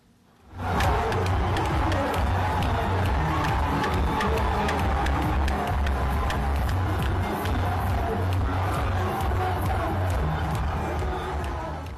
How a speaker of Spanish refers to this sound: Precisamente en las afueras de Dakar está el monumento al renacimiento africano. Y allí, en este emblemático lugar, es donde se reúnen los aficionados de los Leones de Teranga. Así celebran los goles.